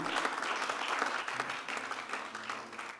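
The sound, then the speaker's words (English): A church audience at a second service claps for itself in steady, dense applause for a few seconds, fairly loud and even throughout, with no voices standing out above it. “Clap for yourselves.”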